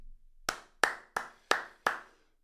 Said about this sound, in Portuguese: Palmas para mim.